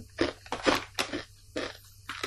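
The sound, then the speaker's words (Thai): Someone chewing food with moist, crunchy bites, about five or six uneven bursts in quick succession, fairly loud against a quiet low hum, with no talking. “อืมเคี้ยวอยู่”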